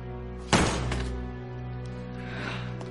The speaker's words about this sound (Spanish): Airado, el joven golpea la mesa.